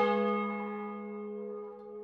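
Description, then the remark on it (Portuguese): A church bell in Madalena, on Pico Island in the Azores, rings out with a rich, resonant tone, its deep hum and shimmering overtones lingering and slowly fading. It stands alone, with no voices. “Os sinos tocam na Madalena.”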